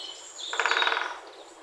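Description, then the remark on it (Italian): A woodpecker pecks at a beech tree at the edge of a wood, searching for grubs and larvae hidden in the wood, in one brief, rapid burst of about a dozen evenly spaced taps, swelling and then fading over roughly half a second, with no voices. “Un suono ritmico e costante accompagna il lavoro dell'animale alla ricerca di cibo.”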